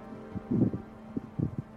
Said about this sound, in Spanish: pasa un tiempo y afortunadamente ese viento solo es alguna clase de ventarrón que arrastró el frío que se genera en la montaña al sur.